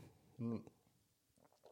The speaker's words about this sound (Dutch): Ik neem nog even een slokje bier, want eh, dit komt anders niet goed, deze uitzending.